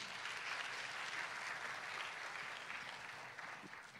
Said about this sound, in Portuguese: Quem pode dizer amém? Quem pode dar um salvo de palmas a Jesus aí?